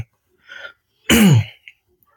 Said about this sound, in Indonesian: jadi batuk nih.